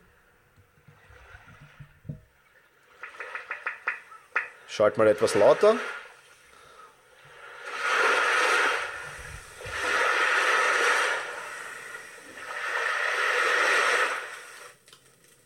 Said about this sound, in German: Ja, das sind in der Regel Naturgeräusche und, und ähm, die recht cool sind. Zum Beispiel die Brandung des Meeres. Ich weiß nicht, ob man das jetzt hört, ich denke schon.